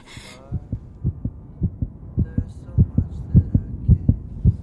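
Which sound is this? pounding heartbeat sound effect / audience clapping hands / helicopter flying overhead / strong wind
pounding heartbeat sound effect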